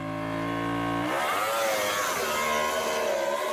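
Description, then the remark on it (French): A MotoGP racing motorcycle engine during a MotoGP race holds a steady high-pitched whine, then shifts into loud, rising and falling revs with a raspy, buzzing edge, roaring continuously without any talking. “je te propose qu'on enchaîne avec la course moto GP pour deux raisons.”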